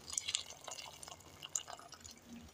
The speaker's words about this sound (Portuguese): Agora entra a água. Cadê um água quente, gostoso? água fervendo? Isso. Olha o barulhinho da água, gente.